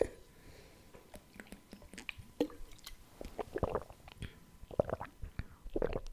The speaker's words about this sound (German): ja, Stille bedeutet jetzt hier immer, ich trinke was.